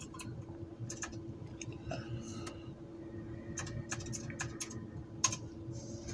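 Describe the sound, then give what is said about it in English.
Someone types a Google search for Vince McMahon on a computer keyboard, quick irregular bursts of crisp key clicks with short pauses between runs, over a steady low background hum. “Now, since I can't find it here, I'm gonna have to just hit the Googles with it.”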